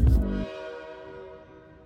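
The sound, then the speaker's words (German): A train horn sounds once, opening with a loud, rumbling burst before its steady chord rings on and slowly fades away. No one speaks. “wann geht denn eigentlich der Zug nach Fun City?”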